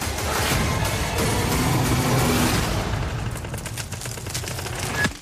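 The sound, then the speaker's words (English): The engines of three gigantic trucks rumble loudly and continuously as they drive over fast-cracking ice, overlaid with dense crackling and popping bursts, with a sharper crack near the end; no one speaks. “and it's patently clear that of the three gigantic trucks rumbling to their rescue, not all of them are going to make it over the fast cracking ice.”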